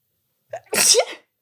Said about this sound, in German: Entschuldigung. Gesundheit. Danke.